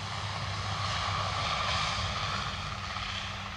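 A propeller airplane's engine drones steadily and fairly loud, a constant roar with a low rumbling hum and no voices, as the plane takes off at night from the end of the runway at Lisbon Airport.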